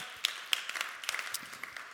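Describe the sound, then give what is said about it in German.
A church audience applauds one another, with many overlapping hand claps forming a steady, crackling wash of sound and a few sharper claps standing out. It stays fairly soft throughout, with no one talking. “Komm, wir geben uns nochmal einen Applaus, oder?”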